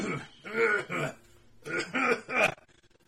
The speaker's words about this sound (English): Would you like a lozenge, my friend? sorry about that.